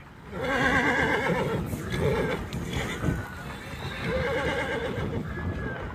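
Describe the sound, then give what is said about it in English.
Horses neigh and whinny repeatedly over a steady, busy clatter of hooves clopping along, the loud, quavering calls rising and falling throughout with no voices present; 400 Native American riders on horseback heading north through the snow on the Standing Rock Sioux Reservation, North Dakota, toward the Cannonball River. “It started on horseback early last April on the Standing Rock Sioux Reservation, 400 Native American riders headed north through the snow toward the banks of the Cannonball River.”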